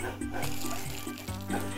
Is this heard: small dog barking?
yes